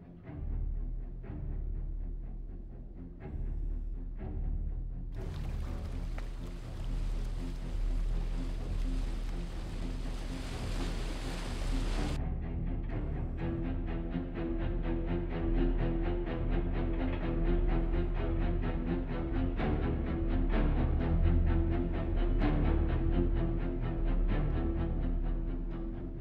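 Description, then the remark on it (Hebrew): Ominous, suspenseful orchestral music, the familiar shark music from Steven Spielberg's film Jaws, with deep low rumbling tones, a brief swelling wash of brighter noise, and then a steady, driving, building pulse with no talking. “בעצם הסצנות והמוזיקה המוכרת של אותו הכריש, שבהמון סצנות אנחנו לא רואים אותו, אבל מספיק שאנחנו שומעים את המוזיקה, שגם את זה אני אשים אה, ברקע.”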